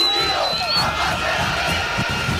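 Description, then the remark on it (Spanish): A large crowd shouting and roaring together in a steady, dense wall of voices, loud throughout, with a brief high whistle rising over the din early on. “como ahora sos ciudadana ilustre, el pueblo, la voz del pueblo te viene a gritar y a preguntar cosas.”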